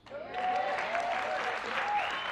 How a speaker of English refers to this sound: My message today to our weekly forum here at New City Church, and you can give yourself a, a applause, you can't lose with what we use.